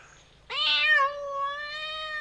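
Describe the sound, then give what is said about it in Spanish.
A single long, drawn-out meow from Panchito Cabrera, a music-loving cat. It is loud, starts sharply, then holds a steady whining tone for nearly two seconds before cutting off. No voices accompany it. “El felino nos cuenta que nos trae una provisión de frescos 7 pulgadas chilensis”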